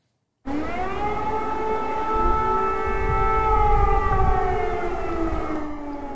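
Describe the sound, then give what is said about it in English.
A loud, sustained air raid siren wails steadily over Kiev, Ukraine, with a fresh blanket of snow on the ground, its pitch slowly falling, echoing across open space over a low rumble of ambient noise, with no voices. “Air raid sirens sounded over Kiev today with a fresh blanket of snow on the ground.”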